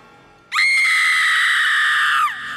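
A woman's single piercing scream rises abruptly and holds at a loud, steady, shrill pitch for nearly two seconds, then cuts off and drops away, echoing through a house at night, with no talking around it.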